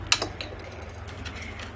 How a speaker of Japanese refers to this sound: はい、カチって聞こえましたあの、カプセルを潰した音です。